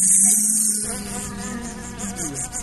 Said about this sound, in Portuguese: Vai botar uma abelha voando aí?